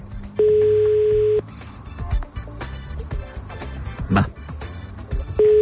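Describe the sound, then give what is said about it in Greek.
A phone line's ringback tone on an unanswered call sounds as a steady one-second beep, then a long pause filled with faint background murmur and noise, and the beep starts again at the end. “Ακόμα μια φορά το αφήνω και κλείνω.”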